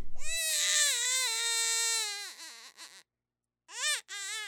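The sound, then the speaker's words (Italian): A baby wails in a long, strained cry that wavers and breaks off, followed after a short pause by two more loud bursts of crying. “Un altro pianto, un altro bambino, un dolore diverso, un dolore macerato anni e anni prima rispetto al 2013.”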